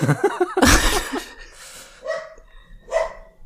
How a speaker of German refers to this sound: Ähm, ja, oh, wieder mit Hundegebell. Ja, da war eben schon da.